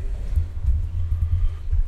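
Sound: elevator arriving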